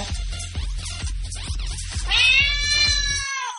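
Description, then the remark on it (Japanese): A person mimics a cat's meow in one long, drawn-out, nasal wail, loud, after a stretch of rhythmic thumping beats that stop as the imitation rises. “これにゃんこの真似してドン引きしてる隙に KBN 奪ってそっかりすればいいんじゃね”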